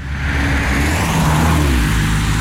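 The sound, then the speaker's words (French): A big car engine revs loudly, its deep rumble rising and shifting in pitch as the vehicle roars past, with no voices. “Eh les gars, c'était pas le mari de Carole au volant de cette grosse bagnole.”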